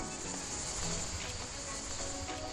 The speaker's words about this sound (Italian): panchina, una mia panchina dove quando posso mi vado a sedere, ho di fronte la Valle dell'Inferno, il sotto in su dei templi e dove sinceramente riesco a staccare la spina con il sonoro dei grilli che penso si possano sentire anche qui di sottofondo.